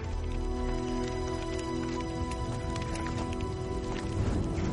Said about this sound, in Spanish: Un caballo galopa sin jinete.